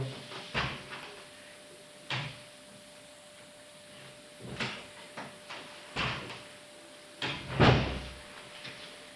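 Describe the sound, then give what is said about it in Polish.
A door is opened and shut, with a series of short wooden knocks, creaks and latch clicks spread over several seconds and a heavier thud near the end. “Teraz może otworzę na chwilę drzwi i zamknę.”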